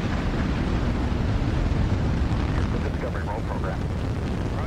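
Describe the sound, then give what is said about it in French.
Main engines and boosters roar through the liftoff of Space Shuttle Discovery on a mission to the space station, a deep, continuous rumble that stays loud and steady. A faint voice surfaces briefly beneath the thunder. “Two, one, booster ignition, and liftoff of the Space Shuttle Discovery, returning to the space station, paving the way for future missions beyond.”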